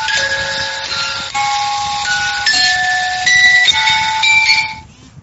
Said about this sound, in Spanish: Uy, se fue este timbre del teléfono. Perdónenme que se me fue la onda y no lo, no lo silencié.